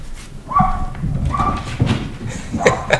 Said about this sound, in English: You guys hear that horse up there?